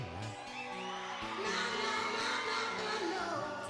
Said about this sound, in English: This is at the, this is in a theater, the uh, Trocadero Theater in Philadelphia, Pennsylvania. So this is a close, intimate. So the microphones are picking up the crowd singing with them Hear them?